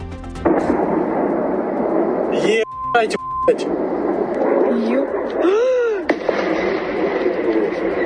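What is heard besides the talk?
powerful explosions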